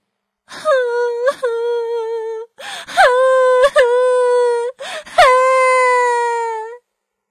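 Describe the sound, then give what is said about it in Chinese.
A voice imitates a baby owl crying loudly: three long, sustained wailing sobs, each starting with a sharp catch of breath and holding a steady, slightly falling pitch, with short pauses between. “原来是一只小猫头鹰在哭呢。小猫头鹰宝宝伤心的哭着，声音变得越来越大。”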